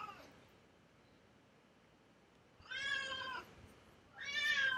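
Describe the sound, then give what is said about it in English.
A cat named Kiki meows twice, each call a drawn-out, tonal cry of under a second with rich harmonics; the second meow is cut off at the end, over a quiet, steady background hiss. “Kiki's cheering.”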